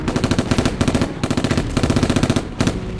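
Rapid machine gun bursts rattle out in quick succession in a combat scene, several sustained volleys of sharp, evenly spaced shots with brief pauses between them, loud throughout.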